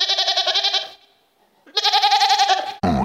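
A goat bleats twice, each call a loud, long, quavering cry, with a short silence between them and an abrupt burst of noise cutting in at the very end.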